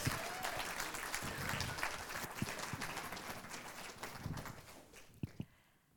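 Sustained audience applause with dense, steady clapping from many hands, given for a guest, then thins out as a few last claps ring near the end and it fades away.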